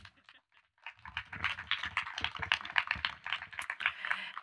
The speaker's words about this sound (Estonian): nii et palun tulge ja tehke meile väikest väitlust. teeme aplausiga neile